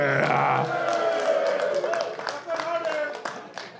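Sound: audience applause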